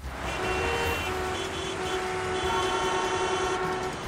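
A train rumbles steadily past with a sustained, droning horn blast held over the clatter of the cars for several seconds, no voices present.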